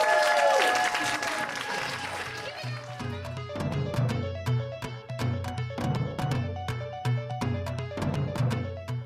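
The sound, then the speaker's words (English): A burst of audience applause and cheering fills the first couple of seconds, then fades as a steady, rhythmic musical beat takes over for the rest. “And y'all give it up for your host,”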